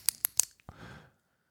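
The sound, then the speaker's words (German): Four crisp clicks, the first three in a quick even run and the fourth after a short pause, trailing off in a brief soft rustle. No one speaks. “erhalten Sie Bonus-Episoden, wo ich viermal klicke aber nur exklusiv.”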